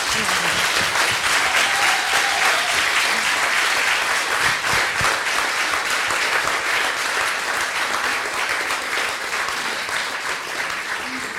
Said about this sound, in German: Ein Applaus erstmal an euch.